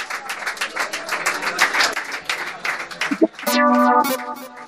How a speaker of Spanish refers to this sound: Bueno, os pido un fuerte aplauso, por favor,